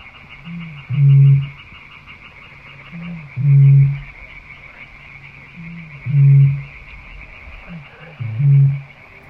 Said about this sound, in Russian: Не видел, но услышал большую выпь. Она здесь живет, слышал ее мычание. Можете быть уверены, что это действительно выпь, потому что, ну, вроде как, а никто другой у нас с вами не мычит.